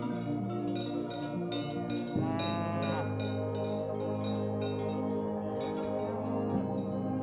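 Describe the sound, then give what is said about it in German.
A cattle herd heading home from the alpine pasture moves through the landscape amid a loud, continuous clanging of many cowbells, with overlapping metallic rings and a low, drawn-out lowing rising through the jangle partway in. “Die Herde zieht von dannen ein langer Strom wunderbarer Tiere trampelt mit lautem Glockengeläut durch die Landschaft.”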